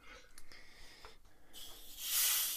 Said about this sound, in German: Ich gieße mir, so, gieß mir was zu trinken ein, ja.